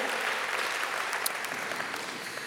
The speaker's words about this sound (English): Come on, you're clapping because Jesus saved us.